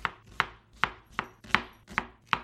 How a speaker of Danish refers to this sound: At hakke et løg.